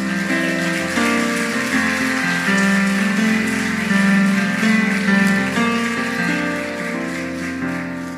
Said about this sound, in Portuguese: Aplauda o Senhor Jesus.